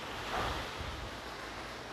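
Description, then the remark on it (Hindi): Heavy rain pours down outside the house in a steady, dense hiss with no break or rhythm. The wash is loud and even, with no voices over it. “भगवान की अनुकंपा से बाहर बहुत बाहर जो होती है मेरे घर के बाहर बहुत अच्छी वर्षा हो रही है”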